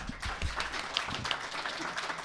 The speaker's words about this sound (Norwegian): Takk, Eskil. Ja. Klapp på Eskil, da, dere.